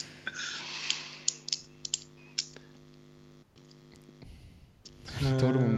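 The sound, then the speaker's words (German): A pen being fiddled with, a scattered run of sharp little clicks and taps over a steady low hum, followed by a louder burst of voice at the end. “wie der Toto mit dem Stift rumspielt”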